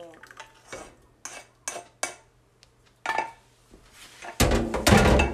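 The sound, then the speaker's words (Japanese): Scattered clinks and scrapes of dishes and utensils being washed, then water suddenly gushes from a tap and keeps running loudly and steadily until the end. “めっちゃ水の音流れてるね大丈夫かな聞こえるかな今ちょっとマッハで洗うから”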